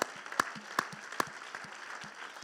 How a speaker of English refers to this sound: Come on. I don't want an opera applause. I want a glory be to God applause.